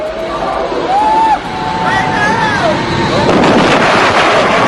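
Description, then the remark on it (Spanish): Fighter jets breaking the sound barrier: a loud, continuous roar with whistling tones that rise and fall, briefly dipping before surging again, with crowd babble underneath. “Bueno, varios aviones de combate que rompen la barrera del sonido.”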